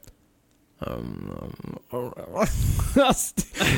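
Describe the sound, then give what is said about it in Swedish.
After a short silence, a voice imitates a friend's contented eating noises as he puts something in his mouth: a long, low humming murmur, then a few wavering, sliding vocal sounds, like someone happily savoring chocolate. “Och han tänker inte på det själv, men han stoppar någonting i munnen och säger så här”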